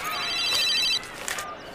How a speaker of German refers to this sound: Mein Handy.